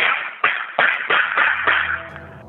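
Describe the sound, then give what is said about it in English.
A rapid string of eleven sharp gunshots in quick succession, muffled and tinny as captured on a 911 emergency call in Germantown, Tennessee, with no voices between them. “And the sound Hello? of 11 gunshots.”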